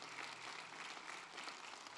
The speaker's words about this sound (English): Let's just give him another round of applause.